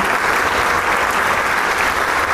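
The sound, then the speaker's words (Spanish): Sustained, dense applause from a large concert audience for maestro Chávez after his performance, a steady wash of clapping hands that stays loud and even throughout, with no voices standing out. “pero el público no deja de aplaudir.”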